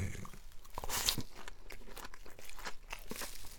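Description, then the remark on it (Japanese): Crisp crunching of someone chewing rice topped with Miwaku no Furikake Ebi Ika, a packaged seafood furikake with small shrimp, squid, nori, aonori, bonito flakes and many tempura bits; a steady run of rapid crackly bites fills the whole stretch with no talking. “サクサク。小エビとイカ、海苔、青さ、鰹節の中にたくさん天かすが入ってる。”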